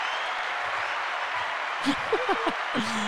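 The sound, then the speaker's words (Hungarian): An audience applauds in a dense, steady wash of clapping that holds evenly for the whole stretch, while a few brief voices rise over it toward the end. “Kapsz még egy tapsot, ezt már nem hallod, de még igen.”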